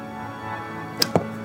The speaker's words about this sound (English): And I realize there's something about archery, just like getting perfectly still in mind and body and letting an arrow fly.